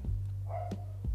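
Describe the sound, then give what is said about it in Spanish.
A dog barks a few times in short, sharp bursts, moderately quiet, over a steady low background hum with no one speaking. “Perdón por los ladridos y los paréntesis.”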